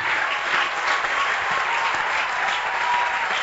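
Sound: audience applauding and cheering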